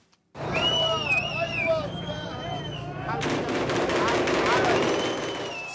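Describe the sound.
Rifle volleys fired by masked young men at the funeral of Mohammed Abu Khadeir in Arab East Jerusalem crackle in rapid, dense bursts over a loud, shouting crowd, with high wailing voices early on and the gunfire growing heavier and more continuous toward the end.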